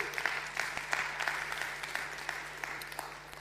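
A room full of people clapping steadily, a dense patter of many hands with sharp individual claps poking through, sustained at moderate volume for a few seconds without any talking.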